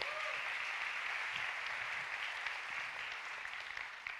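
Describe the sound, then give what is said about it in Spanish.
Sustained applause from a church audience for those baptized the day before fills the room, a dense, steady clatter of many hands clapping at once with no one speaking over it. “Yo, les digo siempre en los bautismos, ayer bautizamos, damos un aplauso a los que bautizamos ayer, gracias a Dios.”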